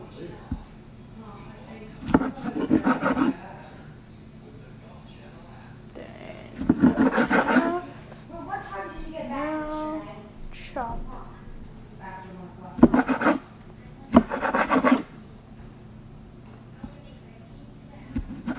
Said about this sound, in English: And um, so first you cut them in half, and then you cut off the top part in a diagonal motion. Then you cut the halves in half. And then dicing is just chopping them, basically.